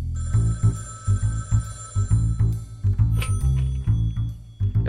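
A telephone rings with a steady run of repeated, buzzy tonal pulses, fairly loud, heard on its own with no one talking.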